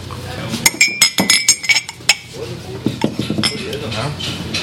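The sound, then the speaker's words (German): Cups and dishes clink and rattle together as cups are collected backstage at the MAF festival, in a quick, irregular burst of bright, ringing knocks, then settle into softer scattered clatter with a low murmur of voices underneath. “Hier werden die Tassen alle gesammelt wir stehen jetzt sozusagen im Backstage der MAF.”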